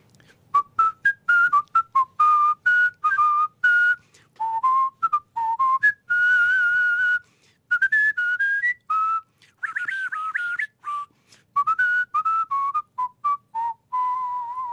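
A person whistles a lively, bouncing song melody up close, clear and loud, with quick tuneful phrases, trills and brief pauses throughout, and no talking.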